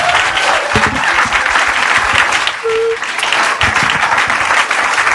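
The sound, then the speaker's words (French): An audience applauds the speakers at an evening talk, a steady, dense, loud wash of many hands clapping for several seconds with no break, a faint whistle-like tone briefly rising above the clatter. “Joignez-moi à applaudir nos, euh, nos conférenciers.”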